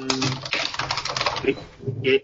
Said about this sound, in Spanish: hay alguien que está tecleando, tecleando Como, como un poseído, sí perdón, me he descubierto, maldición.